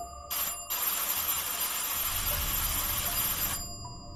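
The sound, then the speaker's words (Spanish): A doorbell at the door rings insistently: a short buzzing burst, a brief pause, then a long unbroken metallic ring lasting about three seconds. The ringing is loud and harsh, with no voices. “Al día siguiente, la despertó el timbre insistente en la puerta.”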